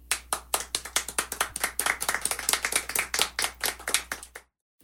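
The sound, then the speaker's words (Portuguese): Hands clap in a quick, steady run of sharp, bright slaps, roughly two dozen over about four and a half seconds, then the sound cuts to silence. “Eu queria aplaudir.”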